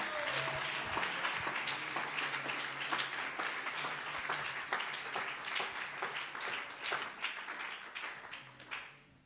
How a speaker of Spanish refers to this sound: Dele aplausos al Señor esta mañana.